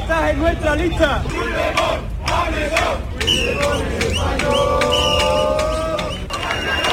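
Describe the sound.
About 200 people protesting against the amnesty chant slogans in unison outside the PSOE provincial headquarters in Seville, loud and continuous, with rising and falling shouted phrases and a few whistles cutting through the dense roar of many voices.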